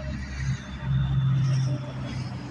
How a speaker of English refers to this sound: And by the way, this is a hood podcast, so you will hear trucks and stuff like that.